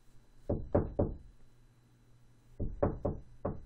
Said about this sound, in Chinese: 他听见了一旁的窗户传来了敲击声，那种敲击声不是被小石头碰撞到的那种声音，而是像是有人用手轻轻敲打的声音。